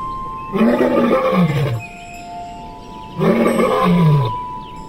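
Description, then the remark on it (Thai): A tiger roars twice, each roar a loud, rough, drawn-out growl lasting over a second, separated by a short pause with a low hum underneath, no voices. “เอาไปปล่อยในป่าลึก จนกระทั่ง ถูกเสือจับกินเป็นอาหาร”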